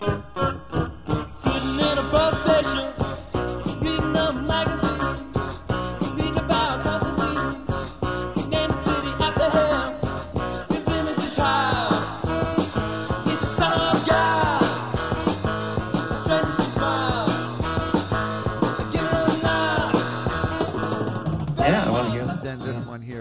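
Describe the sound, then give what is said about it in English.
The original version of a song plays steadily for about twenty seconds, a full band with a singing voice over driving rhythm, dense and fairly loud, with a brief dip just before it ends. “Right, right, and it's uh, and I actually prefer probably just because I I listen to it more the original uh, version. I'll play a little bit because it's completely different.”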